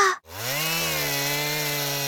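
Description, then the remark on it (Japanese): A chainsaw engine roars steadily after a brief cut-out, its loud buzzing drone holding a low, slightly wavering pitch with dense harmonics throughout, as someone learns to use a chainsaw at a forestry cooperative. “今林業組合に弟子入りしてチェーンソーの使い方を学んでいます”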